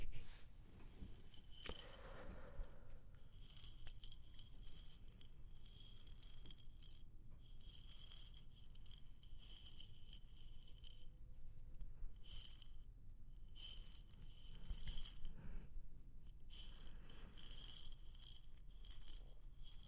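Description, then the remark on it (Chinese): Sand trickles steadily through an hourglass, a soft, fine granular hiss with tiny crackling grains, continuous and even throughout, over a faint low rumble and no talking. “这里有个沙漏，听听沙漏的声音吧。”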